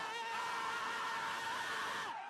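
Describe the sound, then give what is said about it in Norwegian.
A crowd of voices howls and screams together as a howling choir in a sustained, wailing chorus, loud, holding for about two seconds before cutting off. “Nja Hylekoret var kanskje ikke så viktig.”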